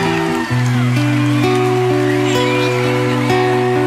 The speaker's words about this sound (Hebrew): תעשו כפיים